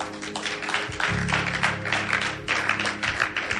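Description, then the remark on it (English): A crowd claps hands for God during a sermon, a dense, steady burst of applause lasting several seconds, with a low sustained musical tone humming underneath through the middle. “Clap your hands for God.”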